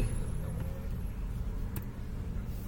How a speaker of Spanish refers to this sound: Que pasen los pendejos camiones, mira la verga.